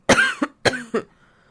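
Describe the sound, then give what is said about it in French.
Two forceful coughs, each a harsh burst followed by a shorter catch, with no talking, then a quiet tail of background noise. “Attendez, je tousse”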